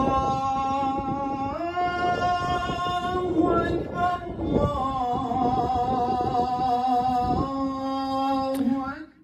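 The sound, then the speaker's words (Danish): A mosque call to prayer sung over a loudspeaker on a football pitch in Gellerupparken, Aarhus: long, held melodic notes that step between pitches, steady and fairly loud, with a faint outdoor hum underneath. “Øhm, det var lyden fra en højtaler på en boldbane i Gellerupparken i Aarhus, hvor Fredens måske kaldte til bøn.”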